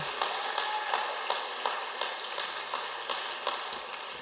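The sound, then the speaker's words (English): An audience at a church service claps together after a prayer, a steady, dense patter of many hands at moderate loudness with no voices over it. “Can we, yeah, let's applaud.”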